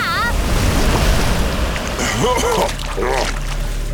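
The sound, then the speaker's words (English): A giant ocean wave, made with water powers, crashes in a loud, steady roar of churning water and wind that fills the whole stretch, with brief vocal cries rising over it toward the end. “Do you think Leo will teach me how to make a giant wave like that when I get my energy back?”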